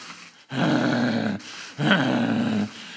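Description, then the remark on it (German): Dogs growl in two long, low, rumbling bursts, each lasting close to a second, with a short pause between them and a fainter murmur at the start. No one speaks. “Keine Angst, die werden dich nicht kriegen, die Hunde.”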